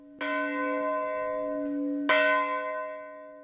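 A village church bell, rung every year at 2:30 a.m., the moment the Titanic sank, rings twice, about two seconds apart, each strike loud and resonant with a long humming decay that lingers between and after the strokes; no voices.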